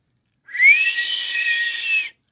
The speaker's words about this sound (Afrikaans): Skakel liewers die fluitketel aan.